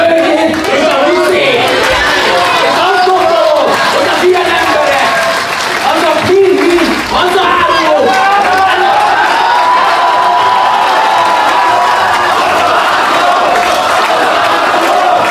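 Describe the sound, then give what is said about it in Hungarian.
A loud, agitated crowd of residents at a public hearing in Debrecen, protesting a planned battery factory, shouts, boos and jeers continuously, interrupting official speeches, many voices overlapping in a dense roar with bursts of clapping, unbroken throughout. “A hivatalos beszédeket bekiabálásokkal, fújolásokkal szakították félbe a fórumon”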